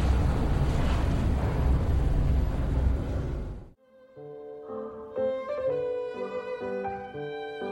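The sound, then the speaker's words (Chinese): A dense, loud, unbroken crackle like a string of firecrackers going off rapidly for several seconds, then stopping abruptly as a bright tuneful melody begins. “你稍等我一会儿，我去买挂鞭炮，欢迎你入伙啊！”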